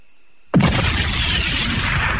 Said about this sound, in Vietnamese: tiếp đó ở phía đông có một pháo hiệu màu xanh bay dút lên trời phía nam có một pháo hiệu màu đỏ phía tây có một pháo hiệu màu trắng phía bắc có một pháo hiệu màu đen xa xa mấy dặm là pháo hiệu màu vàng